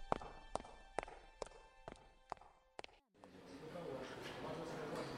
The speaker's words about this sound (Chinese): 书房外传来了一阵仓促的脚步声。